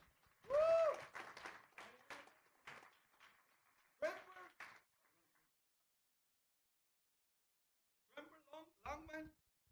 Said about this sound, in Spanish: Un aplauso al Señor Jesús. Gloria a Dios.